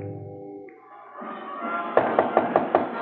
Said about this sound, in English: Outside and down in the street, you could hear the sounds of a parade passing by. It was American Legion Convention Week, the traditional parade.